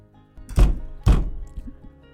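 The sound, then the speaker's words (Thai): A judge knocks a gavel: two solid wooden knocks about half a second apart. Each is a sharp thud with a short ringing tail, followed by faint background noise. “มีเสียงหัวเราะครืน ผู้พิพากษาเคาะคอน”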